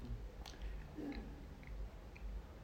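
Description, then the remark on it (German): Faint chewing: soft, irregular mouth clicks and smacks spaced out over a low, steady rumble, with no talking. “Man hört dich locker essen.”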